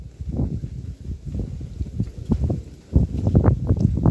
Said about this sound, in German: Dieser schöne Wind.